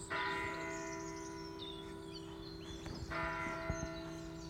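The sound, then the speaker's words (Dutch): A church bell rings out with rich, sustained harmonic overtones, struck once and then again about three seconds later, its resonant hum lingering between strokes. No one speaks. “Oh, de klok.”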